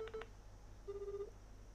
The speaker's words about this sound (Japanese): それでは早速電話をかけていただけますでしょうか